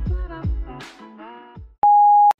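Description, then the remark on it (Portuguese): A single loud, steady electronic voicemail answering machine beep, lasting about half a second with sharp clicks at start and end, following a short stretch of voiced, tonal sound. “Chegou à caixa de correio de Telerrelação. Ouça as nossas confissões após o sinal.”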